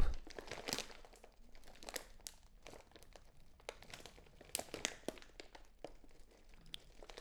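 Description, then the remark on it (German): Dry leaves crunch and crackle underfoot in a steady stream of crisp, rustling bursts, like someone strolling slowly across a forest floor covered in fallen leaves. No voices are heard. “Ein gemütlicher Spaziergang durch einen Waldboden voller Laub.”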